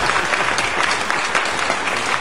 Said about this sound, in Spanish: Muchas gracias al público que está aplaudiendo. No lo ven ustedes porque está al otro de la cámara, pero tenemos público en vivo.